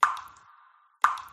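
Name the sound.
leaking shower dripping water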